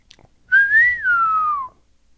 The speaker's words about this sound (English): we're gonna insert the uh, whistle from uh, clint eastwood